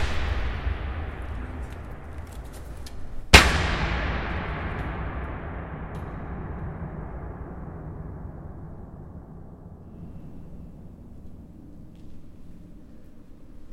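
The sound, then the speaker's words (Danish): A heavy impact from someone jumping onto a surface in a room sets off a deep, booming bass rumble that rings out and slowly decays over many seconds, like an explosion echoing. “So this one especially, if you jump on them, you get the biggest amount of bass ever.”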